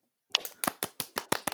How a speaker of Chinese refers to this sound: 人工鼓掌。